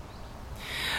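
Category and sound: bird, sparrow chirping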